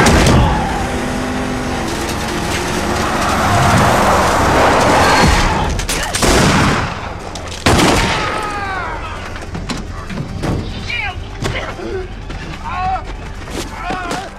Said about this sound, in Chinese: 小白思前想后，终于决定卖掉黑妞救下自己，然后就发动了汽车。